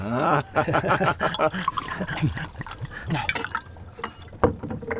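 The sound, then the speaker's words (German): The last of the Elfer wine, from a bottle in a basket, is poured into a second glass with a soft, gurgling trickle and a few drips, partly covered by lively voices and vocal noises. “Und schielt schon auf den Korb mit der Flasche. Ein zweites Glas. Den letzten Schluck Elfer.”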